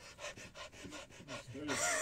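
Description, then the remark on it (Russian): A person pants rapidly and heavily, a steady run of about nine quick, harsh breaths in and out, ending in a longer hissing exhale, imitating the breathing they do while seated before starting off in low wind. “если ветра мало, например, а когда ветра мало, то есть ты знаешь, что тебе надо там 5, 6, 7 махов сделать и ногами тоже работать, как э, ну, приседать и очень быстро, то я сначала начинаю сидя дышать еще, потом встал и...”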